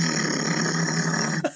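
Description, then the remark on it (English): A voice imitates a running generator, one used to power everything while recording songs at three different locations, with a steady, loud, buzzing drone held for over a second, then trails off with a quick falling sweep. “and we had to do it in three different locations, and we were running a generator to power everything, and so it was really fun for this the sound engineer because if you hear the raw mixes, you just hear in the background.”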